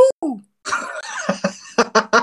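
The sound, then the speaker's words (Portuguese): A voice mimics a notification alert with short vocal blips, a breathy noisy stretch, then three quick rhythmic bursts, moderately loud. “Bicha, como é que é o barulho do aviso?”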